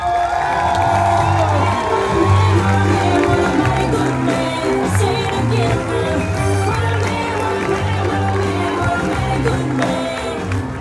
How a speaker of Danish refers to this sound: Er I klar? Ja! Jeg synes, at I alle sammen skal klappe jeres hænder og give en kæmpe stor hånd